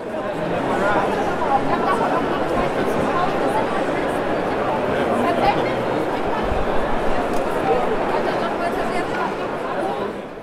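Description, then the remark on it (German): Dense, steady crowd chatter at a busy board game fair hall in Essen, Germany, where about 150,000 players gathered over four days in October. Many overlapping voices merge into a loud, continuous murmur with no single speaker standing out, sustained throughout. “Das ist das Geräusch von Spielenden guten 150.000 Spielenden, um genau zu sein, die sich zwischen dem 6.”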